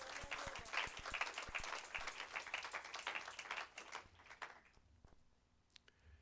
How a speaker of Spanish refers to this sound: Dele un aplauso fuerte a ese Dios maravilloso.